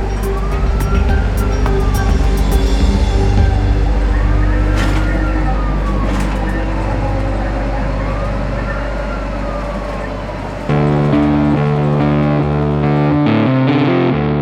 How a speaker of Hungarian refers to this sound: A mentő szirénázva vágtat végig a városon.